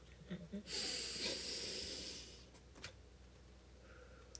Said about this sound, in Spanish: tomas una respiración bien por adentro.